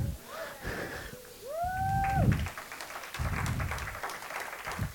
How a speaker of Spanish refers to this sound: Ya están todos los jóvenes. pastor, ya! Todos los jóvenes están aplaudiendo. Amén.